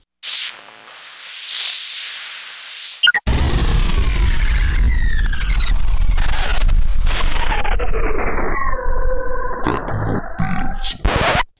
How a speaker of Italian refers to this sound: Questa è Techno Pills, una trasmissione di Runtime Radio e bah, mettiamo la sigla, dai.